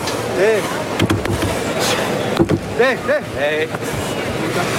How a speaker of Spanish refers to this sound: Ahí oímos a este toro, la respiración del toro.